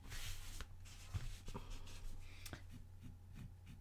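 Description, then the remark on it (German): A pen scribbles across a hard desk surface in quick, irregular scratchy strokes, fairly quiet, with a steady low hum in the background and no talking. “du malst gleich deinen Schreibtisch an.”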